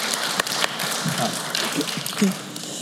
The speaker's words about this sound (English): Come on, applaud a little bit, a little bit of energy, please.